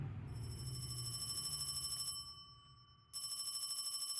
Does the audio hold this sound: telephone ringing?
yes